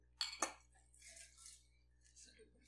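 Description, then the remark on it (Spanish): Two quick, bright clinks of glasses close together near the start, like a toast, followed by soft shuffling and low background voices. “Pues salud, ¿verdad? salud.”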